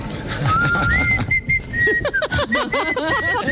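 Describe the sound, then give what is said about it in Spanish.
Someone whistles a lilting tune while working, sustained steady notes giving way to quick rising and falling trills, clear, with a busy background murmur and no talking over it. “O sea, que está trabajando y está chiflando.”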